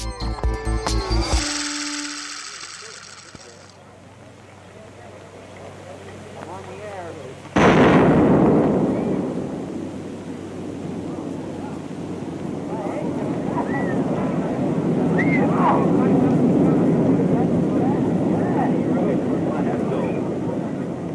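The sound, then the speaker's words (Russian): An old recording of a nuclear explosion, made on 17 March 1953 during nuclear tests in the USA: after some faint noise and tones, a sudden loud blast breaks in, then a long, heavy roar that rolls and rumbles steadily for many seconds. “Мы сейчас слышали запись, которая сделана 17 марта 1953 года во время ядерных испытаний в США.”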